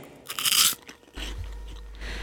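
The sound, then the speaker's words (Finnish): A loud crunch as a wasabi-flavoured corn puff ball is bitten into, followed by quieter chewing over a low rumbling hum. No one speaks. “Se oli tällä kertaa tuommoinen wasabin makuinen maissipallo.”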